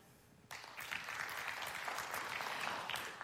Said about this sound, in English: So, will you clap if you're a baseball fan?